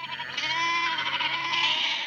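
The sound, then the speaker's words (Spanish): Goats in a meadow bleat in a long, wavering, nasal cry that carries on for a couple of seconds, fairly loud, with no voices around it. “Todas las mañanas desayuna muy temprano y va al prado con sus cabras.”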